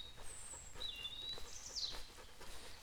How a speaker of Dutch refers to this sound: Hier eh, was net een vogeltje keihard aan het zingen.